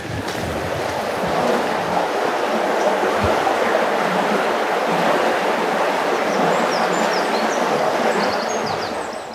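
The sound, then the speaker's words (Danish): Steady rushing of running water from a stream flowing beneath a bridge, heard while standing on the bridge, a dense continuous wash of sound with faint bird chirps high above, no voices. “Lyden af rendende vand er også bare fantastisk, og især fordi det er lige her ved står, står på sådan en, sådan en bro, så der er også en helt speciel, igen, rumklang,”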